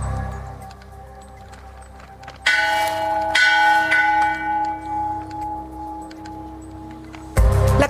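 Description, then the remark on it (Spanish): A large bell rings out at an independence ceremony in Cuautitlán Izcalli, Mexico, with a few strong strikes, each leaving a long, shimmering hum that slowly fades, over a low outdoor rumble with no clear talking. “Otros quienes tuvieron la mala fortuna de romper el cordón de la campana justo al momento de iniciar la ceremonia de independencia.”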